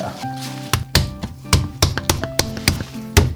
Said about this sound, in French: Donc là, je prépare de l'argile en fait. Donc euh, la préparation de l'argile, c'est hyper important.